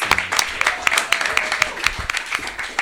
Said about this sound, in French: Moi, je propose d'applaudir